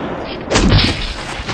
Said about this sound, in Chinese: 大熊一边用空气炮轰击着后边的丧尸，一边把静香推到小夫面前。